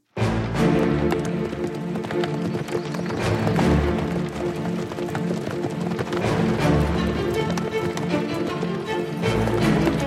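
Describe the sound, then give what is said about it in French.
Steady clip-clop of many hooves, with a rumbling, busy texture like several horses pulling wagons along, as a horse-drawn convoy with a stagecoach carrying Richelieu arrives at the end of a long journey on 25 December 1746. It is sustained and fairly loud throughout, with a faint whinny possible amid the din. “Le voyage a été très long, mais notre convoi touche à son but.”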